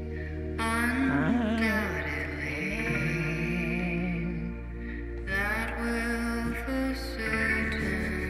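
A pop song verse plays at a steady, full level, with a sung melody gliding over sustained bass and backing instrumentation, uninterrupted by talk.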